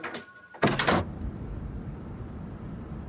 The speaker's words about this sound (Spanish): Cierra la puerta.